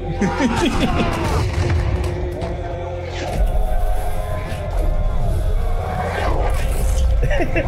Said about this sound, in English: Hit them cannons well.